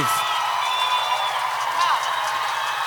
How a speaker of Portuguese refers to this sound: você consegue ouvir a galera te gritando? Consigo. Aí, aí, então ficou bom, né?